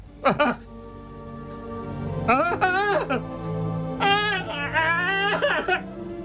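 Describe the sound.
A person reenacts how they sounded while uncontrollably ugly-crying: several wavering, high-pitched wailing bursts with gasping breaths between, almost tipping into laughter.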